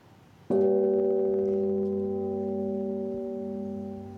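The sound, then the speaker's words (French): The large, deep bourdon bell of the Cathedral of St. Michael and St. Gudula in Brussels is struck once, close by, then hums with rich sustained tones that fade only slowly over several seconds. No voices. “Et voilà donc le bourdon euh, de la cathédrale Sainte-Michel et Gudule, on l'a dit, hein.”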